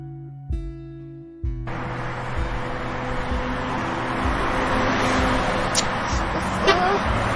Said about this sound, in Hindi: यार थोड़ी धीरे गाड़ी चलाना इतनी जोर से गाड़ी कौन चलाता है मेरे कपड़े मेरे बाल सब खराब हो रहे हैं धीरे चला